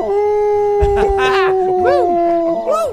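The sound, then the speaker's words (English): A dog howls in one long, unbroken note that holds steady for several seconds, loud, while shorter rising-and-falling howls and yips break in over it. The dog is Ichabod's old singing instructor. “Here, Katrina, this fellow dog taught Ichabod everything he knows.”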